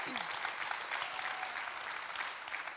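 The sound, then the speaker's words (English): An audience at a St. Augustine's gathering claps in a steady, dense round of applause to welcome three guests, a continuous crackle of many hands at even loudness throughout, with no voices standing out. “Let's give them a little round of applause.”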